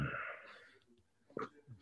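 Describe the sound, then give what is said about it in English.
A person imitates snoring with their voice: a raspy, wheezing inhale that fades out, then a brief pause and a short, sharp snort, fairly quiet. “He's snoring like a baby.”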